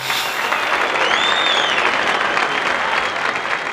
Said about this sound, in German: Applaus geht raus, ne?